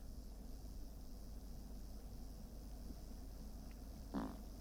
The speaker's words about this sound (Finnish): Kääntää kylkeä. Mitä? ja päästä pikkupaukku. Oliko se Pieru? Se, se oli Saimaan Norpan, Norpan Pieru. Eti saatiin tämmönen harvinaisuus kameralla.